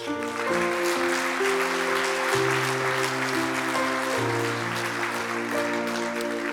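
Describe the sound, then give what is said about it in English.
An audience at a morning church service claps hands in a dense, steady wash of applause, called for as a show of love for Jesus, while sustained organ chords hold and shift underneath. No one speaks. “If you love Jesus this morning, let me hear your hands.”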